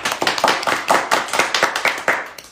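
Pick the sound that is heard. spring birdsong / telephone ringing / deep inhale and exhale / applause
applause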